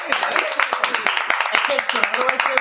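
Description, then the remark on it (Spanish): A crowd claps for radio presenter El Pater as he is introduced on a special programme, a steady, dense burst of applause, many hands striking together in a busy crackle, with voices calling out over the clapping throughout. “Muy buenas noches, aplaudirme, cabrón.”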